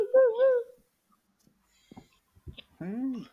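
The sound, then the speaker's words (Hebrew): A voice imitates jackal howls: a short wavering, wailing cry, a pause with faint clicks and breaths, then a rising-and-falling yowl, moderately loud. “תנים לא נובחים, הם מייללים.”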